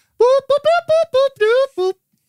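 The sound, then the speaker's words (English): A high-pitched voice imitates the beeps of a droid on a ship, referred to as Three C: about seven quick, bright warbling chirps in a rapid, uneven string, fairly loud, with no ordinary speech. “it's, it's, so good to hear your beeps.”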